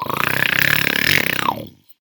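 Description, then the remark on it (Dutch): A loud, rasping snore of robbers asleep after drinking wine, likely voiced by a person imitating it: one long gravelly, sawing breath with a buzzing rattle that lasts under two seconds and then trails off into silence. “En na een paar minuten was er het harde gezaag van hun gesnurk.”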